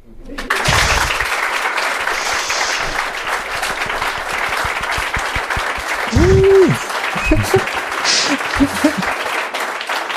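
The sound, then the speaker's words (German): Sustained applause from an audience, dense and steady throughout, with a few voices briefly calling out over the clapping near the end. “Diesmal haben wir sogar ah. Publikum einbestellt, was klatscht.”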